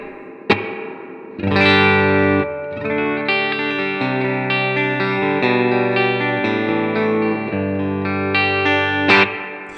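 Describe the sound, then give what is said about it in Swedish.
Sustained electric guitar chords played through a spring reverb, with a sharp pluck at the start and dense, shimmering harmonics hanging in the wash, loud with no talking. “Jag tänkte säga, det låter ju som eh, fjäderreverb.”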